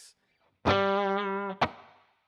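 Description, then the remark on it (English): A single sustained electric guitar note, played through an amp with reverb in the aux loop and a DM2 Waza, rings out for about a second, then a sharp pluck or string stop is followed by a short, small-room reverb tail fading quickly into silence. “Oh, that's real short yeah, it's just like a little room sound, but I use I have a, a DM2 Waza.”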